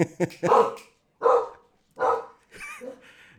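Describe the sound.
A dog barks several times in short, loud bursts with pauses between, in the background, with a bit of voice mixed in near the end.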